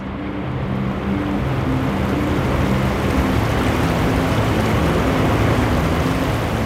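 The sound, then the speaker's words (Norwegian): The large Sogndalselva river, full of meltwater, rushes steadily, its dense, full-bodied roar of churning water filling the scene without pause. No voices, just the constant wash of fast-flowing water. “Sogndalselva er stor og full av smeltevann.”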